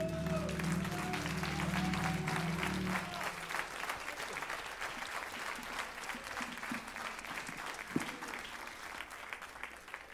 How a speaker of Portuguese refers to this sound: Aplauda Jesus, querido, com toda a sua força. Exalte a Ele, exalte a Ele.